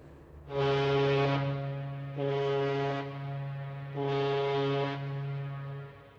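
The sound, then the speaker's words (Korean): A deep, droning horn of a sailing ship blows steadily for about five seconds, swelling louder three times in long pulses; it sounds loud, with no voices. “매 시간 그곳으로 비행기가 날고 배가 항해하고”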